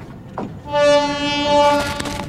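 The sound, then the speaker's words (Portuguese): A train's horn blares in one long, loud, steady blast over the low rumble of the rail line, then drops away into the noisy clatter of the train approaching a station. “O trem se aproxima.”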